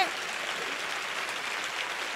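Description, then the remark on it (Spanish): An audience breaks into applause, a dense, steady wash of many hands clapping at even loudness for about two seconds, with no individual claps standing out. “Si usted quiere aplauda y si no, yo no sé.”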